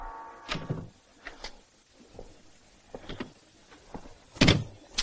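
A woman opens a door at night to let a man in, with a low tonal creak at first, followed by several clicks and bumps of the latch and handle, ending in a louder thump.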